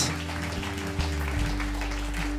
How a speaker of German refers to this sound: Und lasst uns Gott so danken dafür. Lasst uns einen Applaus geben. Danke, Jesus. Danke, Jesus. Halleluja.